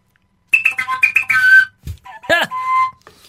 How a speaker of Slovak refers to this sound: Na jednej strane je úplne upchatý, na druhej strane úplne otvorený, dutý koniec dreva, kus dreva s jedným tým piskvorom, do ktorého fúka. To je taká dierka, cez ktorú fúka dovnútra. A takto to znie.